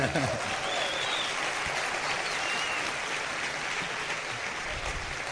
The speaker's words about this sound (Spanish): Mi mamá también, ella, es mayor que yo y me conoce. Ella es platino, aquí está. Para, párate, mami. Aplauso para ella.